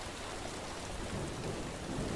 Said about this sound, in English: Oh, Spooky, lightning. Yeah. It's the lightning coming to get us.